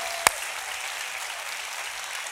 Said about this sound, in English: You've clapped a lot today for a lot of reasons, but can we applaud real loud? Come on, the King of Kings, the Lord of Lords. Come on, church. Come on, if you love them, let them know.